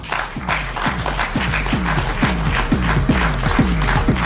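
Sustained applause from an audience of Utdanningsforbundet representatives from all of Trøndelag county at a film screening, a dense steady wash of many hands clapping at an even loudness for several seconds, with a faint murmur of voices underneath.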